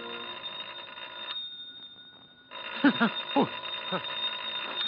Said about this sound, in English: Darling, it's not the door, it's the phone. Oh. Oh, oh, the phone. Yes. Who the devil can that be?